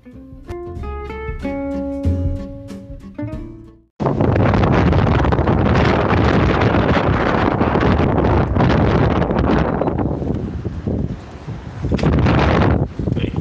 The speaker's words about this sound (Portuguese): foi só pra, pra gravar o, o som do vento mesmo.